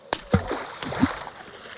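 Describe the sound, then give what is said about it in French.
An empty can, tossed by a fisherman into a countryside lake, plops into the water with a sharp splash, quickly followed by a second splash and a short stretch of gentle sloshing and rippling, fairly quiet. “Les affiches de l'American Can Company dans les années 40 Montrer deux pêcheurs jetant allègrement leurs canettes vides dans un lac de campagne.”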